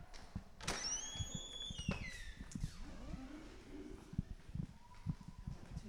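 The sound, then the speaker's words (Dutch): A heavy door in a historic former library building in Leiden, now used as an administrative building, creaks open with long, high, gliding squeals, followed by low groaning and a few soft knocks and footsteps. “Schilderijen van deftige mensen die je streng aankijken, lopers over de brede trappen en zware piepende deuren.”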